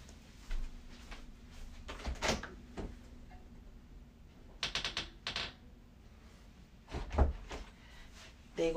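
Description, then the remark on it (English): A door is handled and opened, with a series of sharp clicks, rattles and clunks spread over several seconds and a heavier thump near the end. No one speaks. “gonna try to run away when they heard the door open.”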